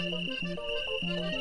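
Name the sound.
cricket chirping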